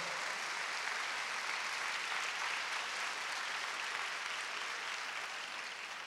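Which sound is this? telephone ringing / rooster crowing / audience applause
audience applause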